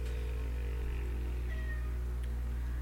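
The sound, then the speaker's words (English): A pet cat lets out a single short meow, fairly soft, over a steady low background hum with no talking. “our other cat baddie who decided to put his two cents in it.”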